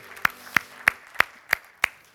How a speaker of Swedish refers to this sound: Underbart, vilken härlig sång! Ska vi ge lovsångarna en stor applåd? Amen.